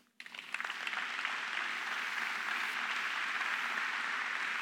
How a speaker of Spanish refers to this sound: Si tú eres hijo de Dios, dale un aplauso.